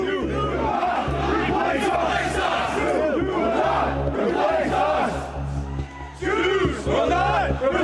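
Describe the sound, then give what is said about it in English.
A large crowd of marchers in Charlottesville chants the slogan "You will not replace us" in unison, many voices shouting together in a steady repeating rhythm, loud, with a low rumbling hum underneath. “They start out chanting, "You will not replace us."”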